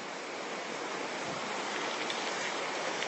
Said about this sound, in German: Nur in den Regenwald pinkeln. Das ist vielleicht noch eine Nummer größer.